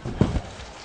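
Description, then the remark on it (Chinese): A few scattered, half-hearted claps from an audience at a Shaoxing opera performance, greeting a singer: two or three soft, sharp slaps close together, then quiet murmur, with no one speaking. “谢谢大家稀稀拉拉的掌声。”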